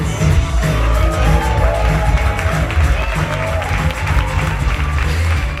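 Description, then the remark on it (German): A large crowd applauds and cheers loudly and continuously at the Deutscher Podcastpreis 2023 award show, live in Berlin, welcoming the presenting duo, with whoops rising over dense clapping and music-like low tones underneath, sustained throughout. “Der Deutsche Podcastpreis 2023, live aus Berlin. Begrüßt jetzt unser Moderatoren-Duo Lena Kassel und Mickey Beisenherz.”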